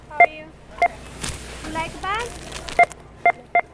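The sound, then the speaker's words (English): Five short electronic beeps from a checkout scanner in a checkout line at a Walmart store in America ring out at irregular intervals, sharp, while indistinct voices murmur in the background. “We recorded this little beep you're hearing in a checkout line at America's biggest retailer, Walmart.”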